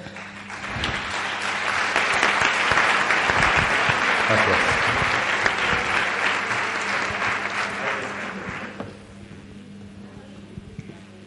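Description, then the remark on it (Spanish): Sustained applause from an audience for themselves, a dense crackle of many hands clapping that swells quickly, holds steady for several seconds, then tapers off toward the end. “Entonces yo quería agradecer, también agradecer a los que estáis aquí porque creí en ello, así que un aplauso para vosotros, por favor.”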